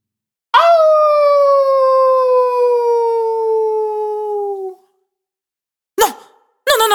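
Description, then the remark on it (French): A wolf howls: a single long, loud howl rises sharply and then holds a steady, slowly falling tone for about four seconds. After a pause, two short howling bursts begin. “Souviens-toi, les loups ne sont pas méchants”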